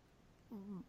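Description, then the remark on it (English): A puppy gives one short, tonal yelp with a slightly whiny quality, fairly clear against a quiet background, with no talking. “heard a puppy in the background from someone, and I did not oh, hear mention was...”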